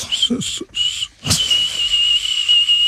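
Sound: person whistling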